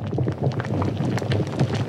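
Bubbling red-hot lava churns steadily, a dense, continuous gurgle full of quick pops and bursts at an even, fairly loud level, with no voices.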